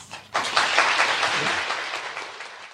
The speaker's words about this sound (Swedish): Ja, det låter ju som att det är applåder och glada hejarop